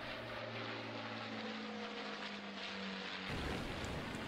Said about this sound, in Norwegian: Ved halv åtte-tiden tar et sekstitalls bombefly av fra England og setter kursen mot Norge. Et moskitofly er med for å lete opp og markere potensielle mål.